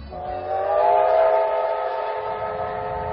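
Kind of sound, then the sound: vehicle, train running with whistle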